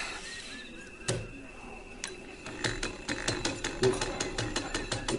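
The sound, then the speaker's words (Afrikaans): A sewing machine about 45 years old runs with a dry mechanical clatter, a few scattered clicks at first, then settling into a quick, steady rhythm of ticking strokes, moderately loud. “Kachiri, kachiri, kachiri. Vroukie, het die naaimasjien ongeveer 45 jaar.”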